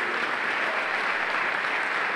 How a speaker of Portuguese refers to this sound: A igreja pode aplaudir o Senhor Jesus, a igreja pode aplaudir.